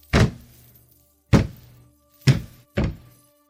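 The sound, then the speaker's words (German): Four heavy, booming footsteps land at uneven intervals, each a deep thud with a short low ringing tail, someone approaching in a town hall, heard alone with no voices. “Kaspar und Bugerman nahmen im Besprechungsraum Platz und warteten eine gefühlte Ewigkeit, bis sie endlich schwere Schritte vernahmen, die näher zu kommen schienen.”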